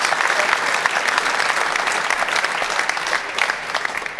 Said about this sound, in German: Und dazu begrüßen wir Peter Sippel ist der sportliche Leiter der Schiris für die erste Bundesliga. Erstmal einen dicken Applaus hier aus München.